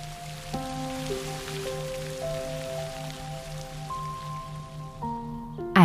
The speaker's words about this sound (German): Der Regen macht ihm rein gar nichts aus.